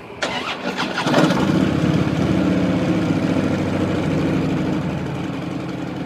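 motorcycle engine running

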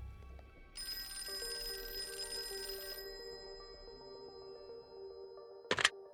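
telephone ringing

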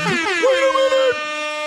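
air horn sound effect

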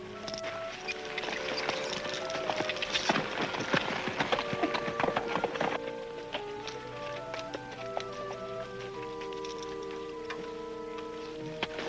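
horses' hooves clip-clopping

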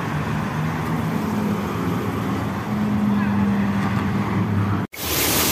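water gushing

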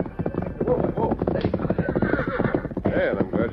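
horse hooves approaching

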